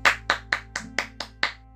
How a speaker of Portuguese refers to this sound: Quem gostou, bate palmas para ela!